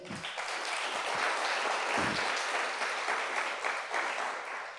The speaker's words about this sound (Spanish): Denle un aplauso a Jesús por eso.